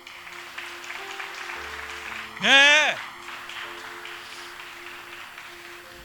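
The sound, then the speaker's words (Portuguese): An audience applauds the Lord in a steady, dense patter under sustained keyboard chords, while a single voice rings out in a brief, loud, rising-and-falling shout midway through. “Então aplauda ao Senhor, porque Ele é bom.”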